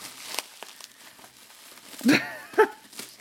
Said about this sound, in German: Ich liebe ja diese Knisterfolie, wo du so draufdrücken kannst. Vielleicht kann man das hören. Ja, da kann man hier so Explosionen machen, ne? Knallfolie heißt das Zeug. Knallfolie, super.